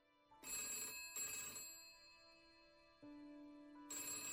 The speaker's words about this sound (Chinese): 正说着呢，电话铃响了，来福喜滋滋的拿起了听筒